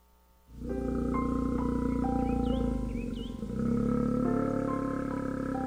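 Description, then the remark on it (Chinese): A Taiwan black bear cub caught in a trap cries in a loud, continuous, moaning wail that starts abruptly and holds for several seconds, its pitch stepping up and down with a brief dip midway; no one speaks. “黑熊宝宝被困在陷阱里了。”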